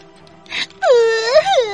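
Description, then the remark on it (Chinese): A voice breaks into a loud, high wailing cry after a short breathy sob, the pitch wavering up and down for about a second, performed as a little moose character crying while straining to hold on to a rope. “小麋鹿一边哭一边努力拉住特特顺下的那根绳子。”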